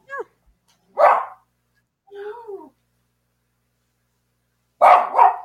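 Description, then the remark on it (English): A dog barks in short, sharp bursts: a few loud barks separated by pauses, with a whiny, yelping bark in the middle, and nobody is speaking. “Hi, dogs.”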